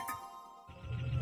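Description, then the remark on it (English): A bright, bell-like warning tone from a time machine's warning bell rings out steadily for a moment, its metallic overtones hanging in the air, before a low rumbling noise takes over. “Wish I had time to stay here and sightsee all over the planet, but that sound you hear is the warning bell on my time machine letting me know it's time to return to our own world and our own time.”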